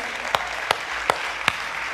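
An audience applauds in a dense, steady wash of clapping, with four sharper individual claps popping out at an even beat above the crowd. No voices are heard.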